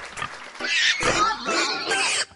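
A pig grunts and squeals in a rough, noisy burst lasting about two seconds, loud, with several overlapping snorts before it cuts off.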